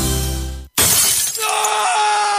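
A sustained humming tone cuts off into a brief silence, then a loud burst of a mobile phone's screen glass shattering bursts out, its crackling debris fading into a high, steady ringing tone.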